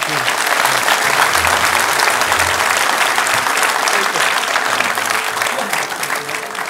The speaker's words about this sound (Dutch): En graag applaus voor, voor onze gasten hier.